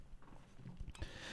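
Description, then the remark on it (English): A dog devours a bone, giving off soft irregular crunches and knocks that grow a little louder and scratchier toward the end, with no talking. “And my dog is back here like devouring this bone.”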